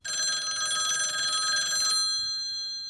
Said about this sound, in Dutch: Ja, de co-telefoon. Die gaat altijd als het niet uitkomt.